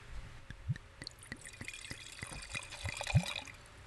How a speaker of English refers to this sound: Sounded like 2018 Adutet Rosé. Uh, yeah, sure. If you say so, absolutely. I couldn't tell from that,